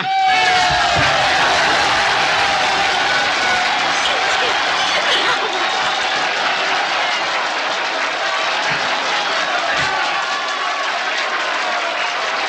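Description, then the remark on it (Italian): Loud, sustained applause from a large audience with scattered cheers and shouts, a dense wash of clapping that stays steady for the whole stretch. “Bravo, bravo! 92 minuti di applausi!”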